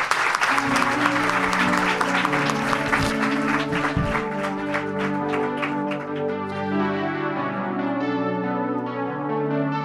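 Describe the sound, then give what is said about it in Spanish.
An audience bursts into dense, steady applause, called for a Macaulay Culkin T-shirt, that thins out toward the end, with sustained ringing, bell-like tones running underneath the clapping throughout. “Oh, Macaulay Culkin, un aplauso para ser Cool, por favor.”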